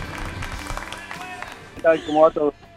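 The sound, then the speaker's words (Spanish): A studio audience applauds with steady, moderate clapping for nearly two seconds, welcoming a skydiver guest, then a man's voice speaks briefly and loudly as the applause fades. “¿Lo aplauden así cuando se lanza del avión?”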